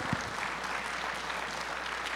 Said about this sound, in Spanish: ¿Alguien puede decir amén y aplaudir todavía?